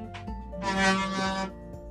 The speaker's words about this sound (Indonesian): suara apa tuh pintu